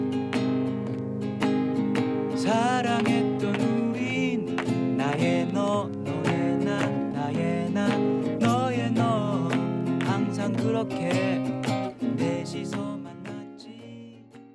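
A song plays on a radio show continuously at a steady, full volume, with sustained instruments and a wavering melodic vocal line, fading slightly at the very end.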